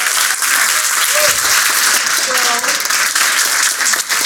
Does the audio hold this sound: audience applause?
yes